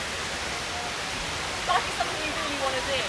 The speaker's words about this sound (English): I'm not quite sure how well you can hear me, but I'm recording this in Trafalgar Square, of all places.